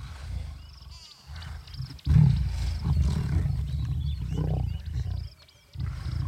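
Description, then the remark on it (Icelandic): A maneless male lion, one of the two man-eating lions of Tsavo, roars in deep, rumbling bursts, the loudest surge starting about two seconds in and continuing with throaty grunts, briefly dropping before another growl at the end. “Því nú byrtist annað ljón, annað makkalöst karldýr eins og til að samfagna félaga sínum með velhæfnaða veiði.”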